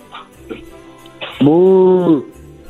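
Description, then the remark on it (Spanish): A person's voice gives one long, sustained moo lasting under a second, loud, with a steady low pitch that bends slightly at the end, imitating a cow. “¿Puedes hacer el puedes hacer el ruido de una vaca?”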